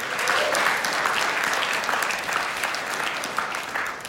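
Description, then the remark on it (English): An audience claps steadily for a woman who has just shared her personal story, a dense wash of many hands at an even, fairly loud level that holds for several seconds without a pause, with no one speaking over it. “Give it up one more time”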